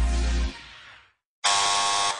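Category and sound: household object, doorbell buzzer ringing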